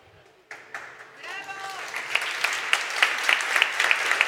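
Audience applause starts abruptly after a speaker dedicates the talk to his staff, and builds into steady, dense clapping with sharp individual claps standing out, loud and continuous with a brief whistle-like tone early on.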